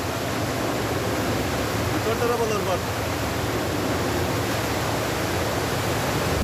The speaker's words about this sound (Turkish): Yoğun yağış sonrasında e, maalesef Dereli ve merkezde su 2 metrenin üzerine kadar tüm merkezi etkisi altına alabilecek şekilde yükseldi.